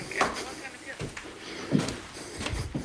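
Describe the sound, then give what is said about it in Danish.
Dull, thudding footsteps of a man land at a steady pace, sounding as if he is climbing stairs, with a faint muffled rustle and background murmur in between. “Det lyder meget, som om han er på vej op ad nogle trapper.”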